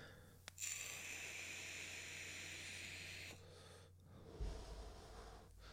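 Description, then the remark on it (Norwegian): A long, breathy rush of air at the microphone, like one deep drawn breath by a speaker lasting a few seconds, followed by quieter rustling and a soft thump, with no talking. “Huh, må ta meg en liten pust her.”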